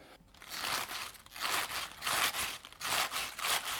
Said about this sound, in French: Ça, fait le bruit de la blette fraîche. Ça doit être comme ça.